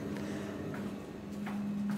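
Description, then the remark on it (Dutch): Footsteps walk down into a basement, a handful of moderately loud, unevenly spaced steps over a steady low electrical hum, with no one speaking. “Lopen de kelder in.”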